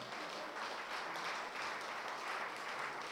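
A church audience bursts into steady applause for the Lord, a dense, continuous wash of many hands clapping at an even level throughout, with no voices standing out.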